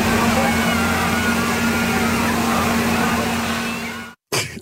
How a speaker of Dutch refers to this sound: zo, zo klinkt zo'n demonstratie.